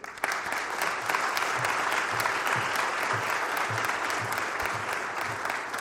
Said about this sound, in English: let's invite uh, Shaunti Feldhahn up to the stage. Give her a big hand